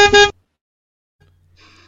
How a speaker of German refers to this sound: kommen jetzt 2022 eigentlich die Hupen. Das würde so aussehen.